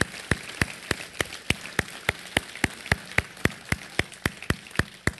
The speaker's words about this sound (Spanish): Yo quiero que ustedes les den un aplauso a los voluntarios de esta iglesia. Si usted es voluntario, usted se dé un, un aplauso.